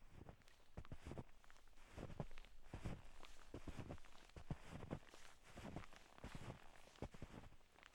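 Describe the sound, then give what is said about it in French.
Steady footsteps crunch through freshly fallen snow, each step a soft, grainy compression repeating in an even walking rhythm for the whole stretch, with no voices. “Vanny adorait entendre le craquement de la neige sous ses pieds.”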